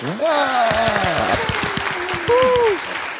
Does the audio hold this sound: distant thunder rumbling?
no